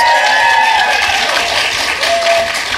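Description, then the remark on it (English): Loud, dense applause from a live audience in a ballroom at the Hyatt in Austin during the 2017 CiRCE conference, with whistles and scattered cheers rising over the steady wash of clapping. “Now, now, when you go, if you're here, when you go to listen to the show, you can try to pick out each of your own claps and cheers.”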